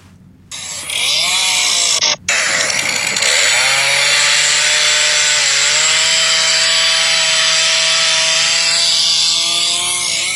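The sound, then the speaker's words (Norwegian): A chainsaw revs up after a short start and then cuts steadily through wood, its loud engine whine holding for about ten seconds with a brief pause near the beginning. “dette er jo en lyd som eh, for en fra Brøttum vekker gode minner. Fordi, jeg vet ikke om jeg har sagt dette før, men vi hadde VM i motorsag”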